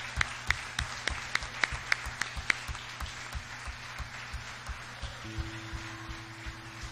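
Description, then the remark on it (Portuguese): A standing church audience applauds the Lord Jesus with steady, rhythmic clapping in unison, sharp claps at first, then softer, over a sustained low instrumental drone. “Eu queria que toda a igreja aplaudisse ao Senhor.”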